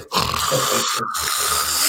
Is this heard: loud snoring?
yes